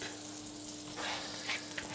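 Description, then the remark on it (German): Olive oil and butter sizzling in a frying pan, a steady, fairly quiet crackling hiss that swells slightly near the end, with no voices and a faint low hum underneath. “genau, jetzt tun wir da einfach ein bisschen einen Schuss Olivenöl rein.”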